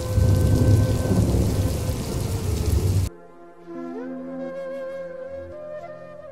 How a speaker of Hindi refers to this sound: वर्षा थी कि और विकराल रूप धारण कर कहर बरसा रही